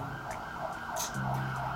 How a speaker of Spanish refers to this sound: Oye, ¿qué de ambulancias pasan por tu casa, eh?